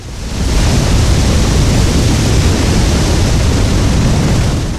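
A loud, continuous roar of an avalanche racing down a mountainside into the valley, with deep rumbling, rising quickly and holding steady as a dense, thundering rush of noise for several seconds before easing slightly at the end.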